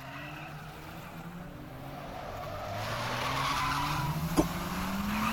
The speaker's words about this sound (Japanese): このエンジン音は、兄貴の車だ